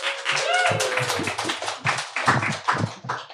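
An audience applauds to welcome the author of the debut novel The Optimistic Decade, with steady, dense clapping that runs for about three seconds. A brief rising vocal cheer cuts through early on, and the clapping stays strong throughout.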